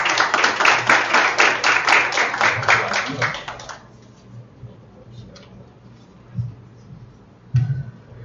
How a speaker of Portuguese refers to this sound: Uma salva de palmas.